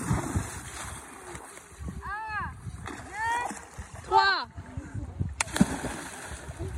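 Five children shout and squeal excitedly as they jump off a boat into the water, with a splash or two, amid a steady outdoor wash of noise.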